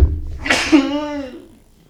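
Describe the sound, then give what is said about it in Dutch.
A single forceful sneeze bursts out with a sharp breathy onset, then trails into a brief voiced tail that fades within about a second. “gezondheid.”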